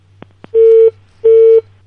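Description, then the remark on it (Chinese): A phone call rings out unanswered: two quick clicks, then two steady, buzzy ringback tones at a medium-low pitch, each lasting about a third of a second with a short pause between. No voices. “这是他手机吗？怎么没人接呢？”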